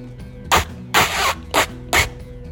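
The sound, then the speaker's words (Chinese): Four quick, loud, raspy fart sound effects in an uneven rhythm, the second one longer and more drawn out, over a faint low humming background, for a boy suddenly farting while playing with a spinning top at school recess. “下课的时间，红宇开心的玩着陀螺，哎，突然开始放屁了。”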